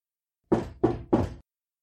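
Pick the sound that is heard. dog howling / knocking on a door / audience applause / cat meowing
knocking on a door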